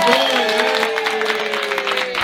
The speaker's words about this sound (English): for those that didn't clap, on three. One, two, three. Y'all give it up